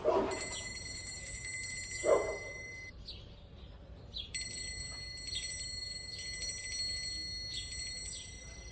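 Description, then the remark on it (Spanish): A small bell from a sound library, played for a stereo test, rings with a bright, sustained shimmer, sounding twice: one ring fades after a few seconds and a second starts shortly after, continuing steadily over faint background noise. “Para ello vamos a usar una campanilla, o más concretamente vamos a usar una campanilla de una base de sonidos.”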